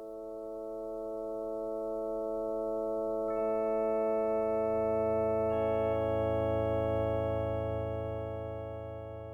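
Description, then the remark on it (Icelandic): An MRI scanner hums with steady layered electronic tones; new higher tones enter twice and a deep, throbbing drone swells midway, sustained and fairly loud, with no voices. “Hljóðin í tækinu er eins og tilruna kjandi ráftónleikar hjá finskum hljóðlistamanni.”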